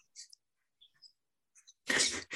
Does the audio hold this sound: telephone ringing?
no